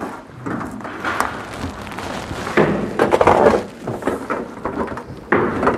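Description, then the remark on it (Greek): A wooden chair is carried over with scraping and clattering, then set down with a few hollow knocks; the rustling and bumping continue unevenly throughout, with no one speaking. “Φέρε μια καρέκλα.”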